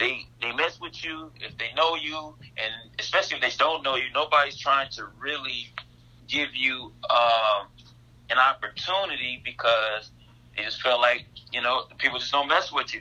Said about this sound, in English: I'm sorry. I know y'all might hear a little buzz in the background. I'm cutting hair.